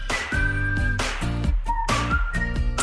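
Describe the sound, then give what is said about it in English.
A bird's clear, high whistling in a few sustained notes that step up and down in pitch, heard over a steady, pulsing low backing that throbs in short repeated bursts. “that was the bird that took a dump on Joe Biden this week”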